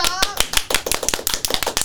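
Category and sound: crowd, applause clapping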